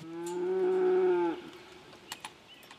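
A single cow lets out a long, loud moo lasting just over a second, followed by quiet background with a few faint clicks and rustles.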